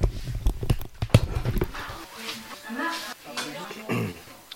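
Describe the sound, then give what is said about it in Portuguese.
A television plays loudly, with a burst of sharp hoof clip-clops at the start followed by voices talking over a muffled, echoing soundtrack. “Espera aí que eu não tô conseguindo pensar porque a televisão tá muito alta aqui, rapidinho.”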